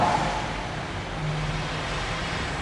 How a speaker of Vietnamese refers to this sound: nó ngừng cái khoan đi nó nghe tiếng ồn lắm